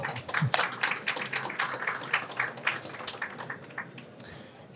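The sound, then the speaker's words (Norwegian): A crowd claps in a dense, steady patter of overlapping hand claps at moderate volume, tapering off toward the end with a few scattered final claps. “Klarer vi å gi det en liten applaus, folkens?”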